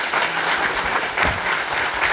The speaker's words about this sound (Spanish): Dale aplauso al Señor, mi hermano, lo merece. Gloria a Dios.